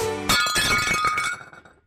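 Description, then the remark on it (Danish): An empty glass clinks sharply, followed by a quick flurry of rattling taps and a bright ringing tone that fades out over about a second and a half. Fairly loud, no voices. “An empty glass.”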